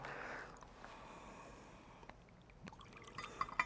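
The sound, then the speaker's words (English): A faint, brief trickle of water poured into wine in a chalice, followed by a few soft drips and light clinks near the end, with no one speaking. “By the mystery of the water and wine,”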